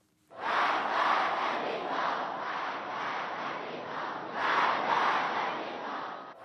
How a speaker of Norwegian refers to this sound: Død over Amerika, roper folkemassen på et torg i Teheran. Året er 2007, og de venter på president Ahmadinejad.